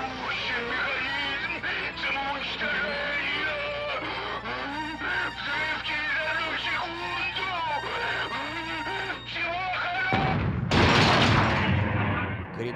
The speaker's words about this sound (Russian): вскоре сверкнула ослепительная вспышка молекулярного взрыва. Все терминаторы были уничтожены, но разгерметизации уровня не произошло.